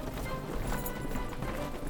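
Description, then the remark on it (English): Many horses' hooves of a marching army of soldiers clop in a steady, overlapping rhythm, a dense clatter of hoofbeats echoing among cliffs and chasms, continuing throughout with no voices. “All the cliffs and chasms repeated the echoes a thousand times over the noise of the songs and the clamping of the horses' hooves.”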